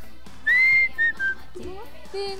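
A person whistles a short tune: a long sustained note, a couple of quick shorter notes, then a lower whistled phrase, with faint background murmur.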